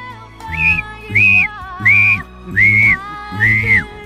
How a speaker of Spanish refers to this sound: en la película de Titanic la gente se está ahogando y llegan, obviamente, en la escena donde les empiezan con un silbato y dice, ¿quién está vivo, no?